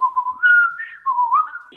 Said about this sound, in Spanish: Yo como no sabía tocar, ya venía capaz que con toda la letra armada y con la melodía y se la silbaba al guitarrista